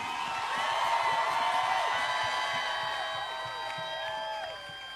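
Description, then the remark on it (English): A large crowd at a religious gathering in Asaba screams and cheers together, a dense wall of high-pitched voices that holds steady and loud for several seconds, then eases off slightly at the end. “Come on, scream!”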